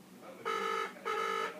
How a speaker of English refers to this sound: There's three rings, four rings, it gets it gets diverted. five rings, six rings. The Phone rings.